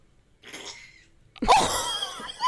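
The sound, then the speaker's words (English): A cat retches up a hairball on a bed: a short raspy hack, a brief pause, then a louder, strained gagging heave with a throaty, wheezy edge. No one speaks. “My cat is about ready to throw up a hairball on my I bed.”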